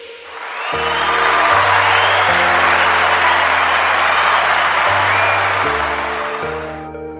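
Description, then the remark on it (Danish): A burst of crowd applause swells in, holds steady for several seconds, then fades, layered over a simple stepping musical chord pattern like a short jingle. No one speaks. “Ja, som lyden her antyder, så skal vi øh, til at have uddelt et skulderklap.”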